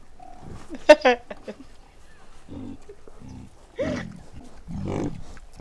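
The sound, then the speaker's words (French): A pig squeals in a few sharp, high-pitched bursts near the start, followed by lower, drawn-out grunting squeals that come and go over several seconds, loud. “C'est un cochon.”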